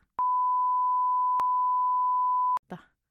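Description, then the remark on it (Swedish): A steady, unbroken phone tone sounds for a couple of seconds after a number is dialed, clear, with small clicks at its start, middle and end, followed by a brief murmur of voice. “Jag ring från din telefon så vi säger numret.”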